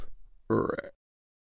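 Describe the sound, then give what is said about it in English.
A single short, throaty burp, fairly loud, lasting about half a second, followed by silence. “Ducks slurp, ducks burp.”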